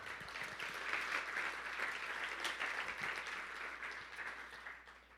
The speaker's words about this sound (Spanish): Ahora, dale un aplauso al Señor.